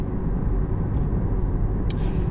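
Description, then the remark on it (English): Steady, loud low rumble of road noise inside a moving car on the way to work, continuous and even throughout, with a couple of faint high ticks near the end and no talking. “I am live once again from the car studio, traveling, headed to the job.”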